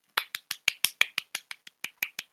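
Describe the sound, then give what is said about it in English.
A clap sound effect: about a dozen crisp, sharp claps in a quick, steady rhythm, each one short and bright, with no voices around them. “That's a normal clap.”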